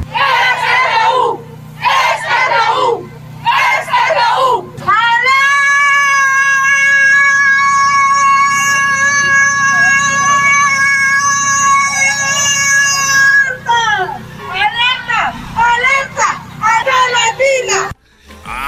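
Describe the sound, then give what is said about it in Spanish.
A protester at a rally in El Salvador lets out a loud, sustained, high-pitched scream held for about eight seconds, like a sung note, with excited shouting voices and crowd noise before and after. “ahora están hasta contratando cantantes para que protesten en El Salvador”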